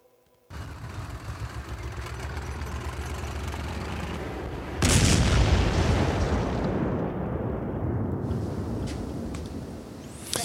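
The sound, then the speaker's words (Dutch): A bomb explosion sound effect: a low rumbling roar builds, then a single loud, sharp blast hits and fades into a long, crackling, rumbling decay, with no voices. “Ja, ik denk ik laat maar even een bom horen.”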